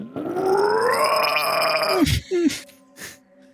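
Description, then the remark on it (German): A person gives a loud, guttural monster-like scream in imitation of an orc. It rises in pitch for about two seconds, then breaks off into short, rough grunts. “So verlasst ihr diesen, in Anführungszeichen, Kellerraum und als ihr gerade raustretet aus diesem heiligsten Ort der Elfen, hört ihr von den Wurzeln verstärkt einen orkischen Schrei.”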